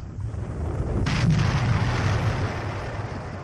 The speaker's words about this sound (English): and more explosions.